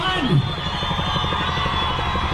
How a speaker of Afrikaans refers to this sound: hierso kom die helikopter nou aan as jy kom hoor in die agtergrond